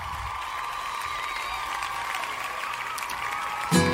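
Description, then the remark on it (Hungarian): A small audience in the Rádió 88 studio claps steadily for about four seconds for live music, a dense, even patter of hands that swells slightly near the end, with no voices over it. “Hölgyeim és uraim, egy nagyon nagy taps, hiszen a Rádió 88 stúdiójában élőben zenél”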